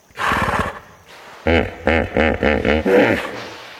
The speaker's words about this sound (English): Chris Watson was there to record the chatter that the Maasai people call the laughing hippo.